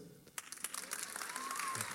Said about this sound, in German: That is amazing. So, Applaus ja.